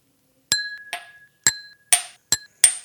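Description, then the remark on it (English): Whiskey glasses clinking together in a toast, a quick series of about six bright, ringing strikes with short decaying tones, fairly loud, with no talking. “A click for each chin.”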